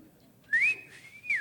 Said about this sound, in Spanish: ¿Cómo es? Vea, vean oígame cómo silban, parecen pajaritos.